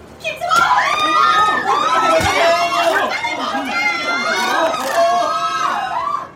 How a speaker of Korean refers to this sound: 작가를 기다리는 팬들의 함성이 들렸고 서점 입구에는 거창하게 플래카드가 붙어 있었다.